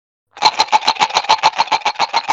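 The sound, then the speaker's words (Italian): Dice rattle inside a Perudo cup as it's shaken fast and steadily, about two seconds of bright, regular clattering bursts with no voices. “Quindi bicchierino di Perudo con i dadi.”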